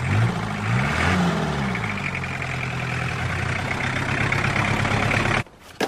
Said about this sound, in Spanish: una camioneta de remolque se acerca al auto de Simón